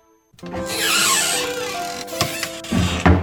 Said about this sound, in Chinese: 这个小仆人呐，他呢就把门给关上了。